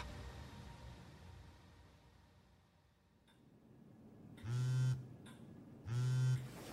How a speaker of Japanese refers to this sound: 深夜2時ニューヨークの自宅でファイザー社 CEO アルバート・ブーラは電話の着信音で目を覚ました大きなあくびをしながら発信者を見たイスラエルの首相ベンジャミン・ネタニヤフだった